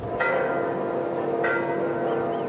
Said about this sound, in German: Auch wenn die Glocken in Argentiniens Kathedralen noch so schön läuten